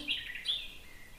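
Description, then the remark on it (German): A lark sings in short, bright trilling bursts, two quick phrases in quick succession, fairly faint against a quiet outdoor background with no voices. “ein Lärche. Gruß an alle Vogel Vogelliebhaber.”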